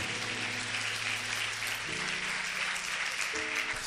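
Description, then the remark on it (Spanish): An audience applauds the Lord steadily in a dense, continuous wash of clapping, while sustained organ or keyboard chords hold underneath and shift pitch partway through. “Demos un aplauso a nuestro Señor.”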